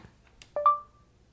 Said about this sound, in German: Ich bin hier jetzt im Bearbeitungsfeld Textmitteilung eingeben und jetzt muss ich wieder die mittlere Taste länger gedrückt halten, damit ich zur ähm, Sprachbefehleingabe komme. Sprechen Sie nach dem Piepton.